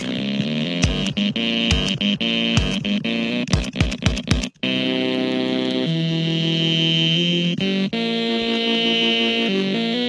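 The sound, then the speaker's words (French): A stepper motor whirs out a tune, its buzzy, harmonic tones stepping through rapid pitch changes and short staccato notes, then sustaining longer notes. Loud, with no voices. “C'est un moteur. Ouais, ce qu'on appelle un moteur pas à pas.”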